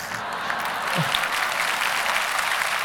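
A crowd applauds with a dense, steady wash of clapping that holds at an even, fairly loud level for the whole stretch, with no voices rising above it.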